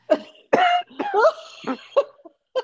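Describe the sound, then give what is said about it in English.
A person fakes a string of exaggerated, throaty coughs to sound sick, demonstrating how to call in sick: about five or six uneven bursts, some drawn out and voiced, fairly loud, with no speech. “like you have to sound sick. And I demonstrated for her how you do that. You cough.”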